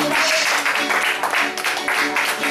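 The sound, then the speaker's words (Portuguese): An audience claps for Jesus during a worship service, loud and sustained, with a loose rhythmic pulse running through the dense wash of hands, and some voices mingle underneath. “de palmas para Jesus.”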